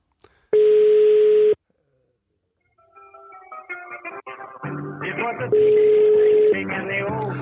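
A steady telephone tone sounds for about a second, then after a pause a second identical tone beeps over a busy, music-like background, as a call is dialed out to a man who knows the Bremer Brücke and VfL.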